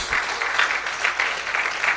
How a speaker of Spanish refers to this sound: Padre Celestial, a usted le damos la gloria y la honra y la iglesia se despide con un fuerte amén y un aplauso para el Señor Jesucristo. Gloria a Dios.